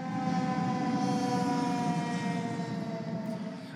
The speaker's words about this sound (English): I think that fire truck was losing power. oh, they're pulling into our lot.